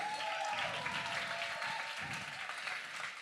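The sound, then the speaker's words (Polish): A crowd claps steadily for a few seconds, dense and sustained applause with no one speaking over it. It is a big round of applause at Echo Church for the production crew sitting at the back. “Jeśli mógłbym widzieć was troszkę bardziej, to bym był bardzo wdzięczny naszej produkcji i wielkie brawa dla tych ludzi, którzy siedzą z tyłu.”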